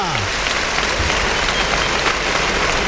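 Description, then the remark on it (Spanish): A large crowd in the bullring of Almería, Spain, cheers and applauds the bullfighters as the national anthem sounds, a dense wash of clapping and voices that holds at a constant loud level throughout. “el público que vitorea”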